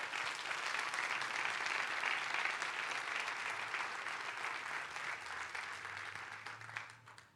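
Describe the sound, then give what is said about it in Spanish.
A crowd claps steadily in a dense, continuous wash of applause that holds for about seven seconds before starting to thin out at the end, with no speech over it. “Yo creo que se merece un fuerte aplauso.”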